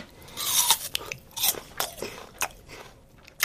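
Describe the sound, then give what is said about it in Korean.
A crisp green Aori apple (a distinct apple variety, not an unripe apple) is bitten with a loud, juicy crunch, followed by a few sharper crunching chews at irregular intervals over a faint background hiss, with no talking. “요게 보기에는 새파란 게 풋사과처럼 들이고 보이도 사실은 아예 종이 다른 사과다.”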